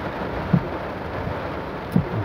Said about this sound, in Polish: No patrz, deszcz pada, wszystko za, zajęte jest.